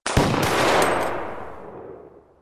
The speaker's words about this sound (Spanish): El sonido de los disparos delató su posición en la inmensa llanura. La tarde quedó muda y expectante tras el estruendo, y todos vieron al jinete salir despedido de la grupa de su caballo.